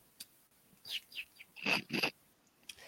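birds chirping

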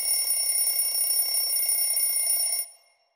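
alarm clock ringing

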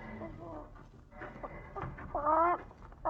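chicken clucking

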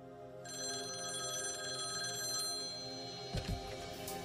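telephone ringing

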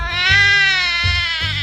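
baby crying

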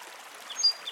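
flowing river water

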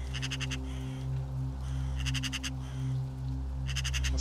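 crows cawing

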